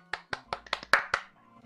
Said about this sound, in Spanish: Fuerte el aplauso entre ustedes y a todos.